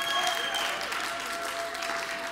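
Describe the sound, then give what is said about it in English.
An audience applauds to give the Lord a hand, with steady, dense clapping that holds a constant level throughout, a continuous wash of many hands with no voices standing out. “Give the Lord a hand.”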